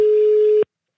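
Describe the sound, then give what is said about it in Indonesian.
A single steady telephone line tone as a call connects, a loud mid-pitched beep held for just over half a second before cutting off abruptly, followed by silence. “Ih keren nih, kita udah bisa nelpon nih.”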